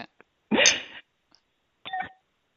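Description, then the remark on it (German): A drinking glass is clinked twice against the microphone in a toast: a sharp, bright first knock with a short ringing tail, then a lighter, tonal tap about a second later. No one speaks. “Aber ich habe extra ein Glas Mikro, dass ich mit dir so wie zum Wohl machen so wie richtig. Jetzt muss ich richtig Prost machen.”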